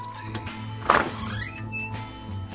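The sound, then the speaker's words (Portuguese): A door is opened for an arriving visitor with a single clunk of the latch, followed by a brief creaking sweep as it swings, over a low steady background hum. “Ai, chegou, chegou, eu vou lá abrir a porta pra ele.”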